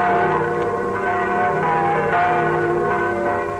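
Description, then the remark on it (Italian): All the church bells of Rome peal together in a festive, continuous clangor as Pope John XXIII leaves through the bronze door at the opening of the Second Vatican Council, their overlapping tones ringing loudly and steadily throughout with no pause and no voices. “Tutte le campane di Roma suonano a festa quando Giovanni XXIII esce dal portone di bronzo.”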